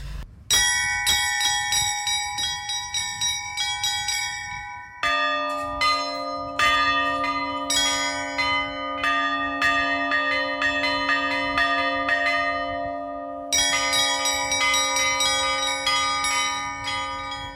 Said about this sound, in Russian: это музей, вот, и из-за того, что это музей, ты можешь подняться на эту колокольню и позвонить в колокола. И вы позвонили в колокола. Да, мы позвонили в колокола.